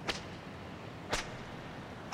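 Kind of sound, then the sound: sound effect, whip cracking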